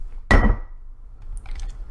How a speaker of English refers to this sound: if anybody was wondering what that loud bang was, uh, I have a glass of water sitting on a coaster.